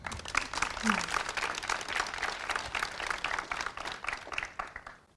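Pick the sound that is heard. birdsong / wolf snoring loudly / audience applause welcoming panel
audience applause welcoming panel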